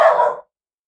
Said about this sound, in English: But at the same time, oh, there goes my dog. Sorry.